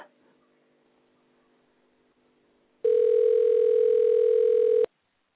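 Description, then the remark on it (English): A single loud, steady telephone ringing tone on an outgoing call, lasting about two seconds with an abrupt start and stop, following a stretch of faint low hum. “I think he was supposed to answer the phone.”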